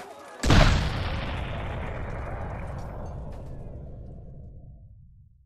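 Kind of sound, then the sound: sound effect, cannon firing boom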